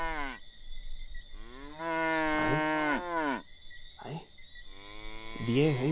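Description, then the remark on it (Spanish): Several cows moo loudly, one long drawn-out call after another, some overlapping, with a brief grunt in between and no talking. “¿Y qué hiciste tú con tantas vacas?”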